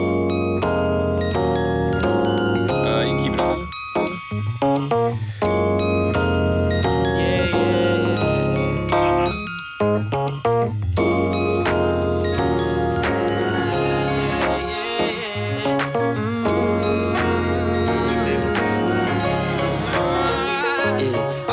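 A pop song plays loud and continuous, with full, dense instrumentation and bright chiming tones, briefly dropping out for a moment twice before the steady groove resumes.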